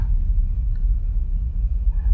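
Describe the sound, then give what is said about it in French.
A deep, continuous low rumble rolls steadily throughout, muffled and far off like thunder from a distant storm, with no voices. “Il y a un orage au loin.”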